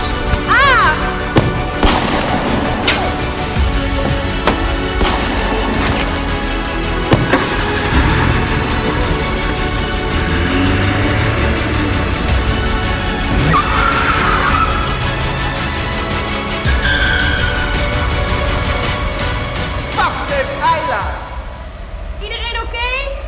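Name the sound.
car driving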